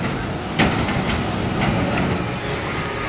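An amusement park teacups ride, where riders sit in little teacups that go around on a platform and can be spun, running with a steady, loud mechanical rumble and whir with a few sharp clanks and rattles mixed in, and no voices.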